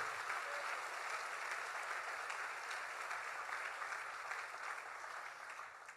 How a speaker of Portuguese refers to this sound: Se você crê, aplauda Jesus, aplauda o Senhor.